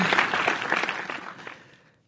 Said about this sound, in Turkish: Alkışlar sana. Harikaydın.